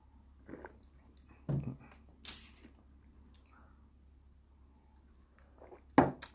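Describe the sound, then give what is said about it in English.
Quiet sips of coffee from a cup: a few short wet slurping sounds spread across a few seconds, with a louder gulp near the end, no talking. “Let me take a sip of my coffee real quick.”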